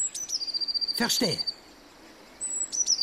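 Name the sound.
blue tit calling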